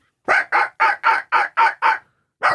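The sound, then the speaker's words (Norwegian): A man imitates a small dog, not a labrador, with seven quick, evenly spaced yaps, then a short pause before one more. The sound is loud, with no other talking. “Har du hørt bjeffinga mi? Ja. Vil du høre? Det, det, er, det er, ikke labrador, det er litt mindre hund.”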